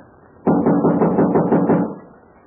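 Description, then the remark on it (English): A rapid run of about eight firm knocks on the wooden door of the girls' room, fairly loud, with a hollow boom that blurs the blows together before fading out. No voices. “You knock and say you have a message for April Kane.”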